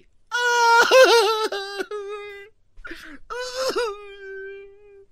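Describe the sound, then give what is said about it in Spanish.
A voice mimics a woman crying as a joke, with two bursts of high, wavering wailing sobs separated by a short gasp, loud, with no words spoken. “Oye, bro, aviéntate el chiste otra vez de la mujer llorando.”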